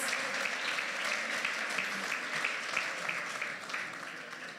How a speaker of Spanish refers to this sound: ¿Por qué no le damos un aplauso a estos buenos amigos y amigas que están con nosotros?